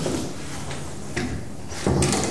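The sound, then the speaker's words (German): A door being shut and locked: a couple of brief mechanical clicks followed by a louder, heavier clunk, with no one talking. “Okay, bevor Sie jetzt noch mehr zuschließen, sollten wir besser wieder rausgehen, sonst ist es peinlich.”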